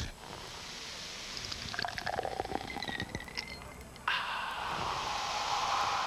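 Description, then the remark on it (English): Zima is poured into a glass with a gurgling, rising pitch for a few seconds, then a steady bright fizzing hiss takes over near the end. Fairly quiet, with no voices. “pours himself a Zima, drinks the eczema,”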